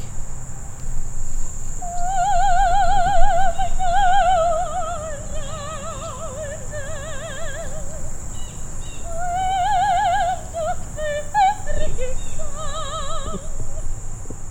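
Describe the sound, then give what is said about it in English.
A woman sings opera outdoors in a high, strong vibrato voice, holding long wavering notes with short pauses. She stands far away from event goers, on the other side of a creek. A steady high insect drone hums underneath throughout. “some lady started singing opera, and I got scared for a second.”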